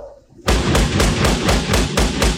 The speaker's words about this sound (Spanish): ¡Deja de tocar, bruto! Eh, patadas, golpes, quiere tumbar la puerta.